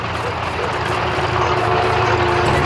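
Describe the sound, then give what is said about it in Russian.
Tanks made from tractors, with turrets welded from steel sheets, rumble as they move: a loud, steady engine roar with a deep droning hum and broad noisy grinding running unbroken across the whole clip. “Наши танки двинулись! Ой, мамочки, как же они грохочут!”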